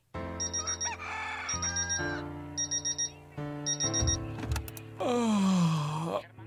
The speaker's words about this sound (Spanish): ¡Ay, che gallo! ¡Vecino! ¡Ya calla ese animal!